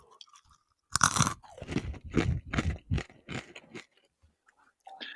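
Loud, crackly crunching of a crisp snack being bitten and chewed, a sharp first bite followed by several rhythmic crunchy chews, then quieter mouth sounds at the end.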